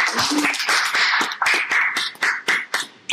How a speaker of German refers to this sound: Junge, klatsch auch mal, damit wir wissen, du bist da.